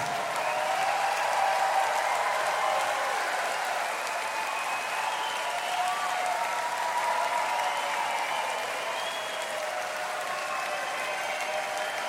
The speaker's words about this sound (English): You guys stay there for a second. I just need to get a photo. Keep clapping like we're, getting into it.